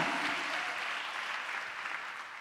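An audience applauding: dense, steady clapping from many hands fills the whole stretch, holding an even level before easing off slightly at the end. No one speaks over it.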